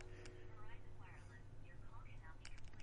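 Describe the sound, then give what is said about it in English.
A telephone call fails to connect: a muffled recorded voice says the call could not be completed, playing over the line against a steady electrical hum, moderately loud and continuous for a few seconds. “is the phone cut off? They just said it couldn't couldn't complete the call.”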